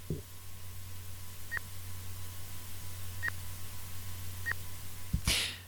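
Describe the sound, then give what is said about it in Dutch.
Three separate presses on an ATM keypad during a 20 euro cash withdrawal, each with a short electronic beep, spaced a second or two apart over a steady machine hum, then a louder clunk at the end. “Ja, je hoort me dus ook tikken.”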